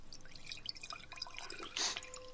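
Malbec red wine trickles quietly into a glass, with soft gurgles and drips and a brief fuller splash near the end. It is faint, with no talking.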